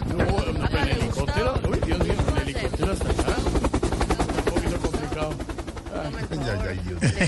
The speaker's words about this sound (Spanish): Hágale, señor. Súbase, préndale el helicóptero, hágame el favor.